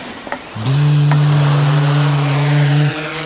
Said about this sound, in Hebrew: מה זה הרעש הזה? זה נשמע כמו דבורה ענקית ועצבנית במיוחד. אה, זה פשוט מישהו שהביא איתו רחפן לים והוא מטיס אותו מצד לצד מעל הגלים. אמנם הרעש קצת מעצבן, אבל רחפנים בסך הכל זה די מגניב.